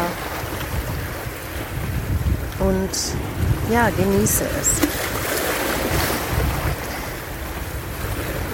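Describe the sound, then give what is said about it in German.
Steady roar of wind and surf on the Ligurian coast, in a bay framed by rocks, fills the whole recording, with gusts buffeting the microphone, while a person speaks briefly and softly over it. “Warum ich diese Podcast-Folge heute am Meer aufnehmen möchte”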